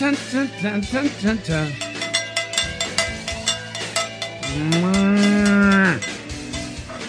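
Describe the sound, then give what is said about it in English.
Cowbells clank and jangle in a busy, overlapping rhythm, while a cow gives several short moos and then one long, loud low moo. “no, don't take the bells.”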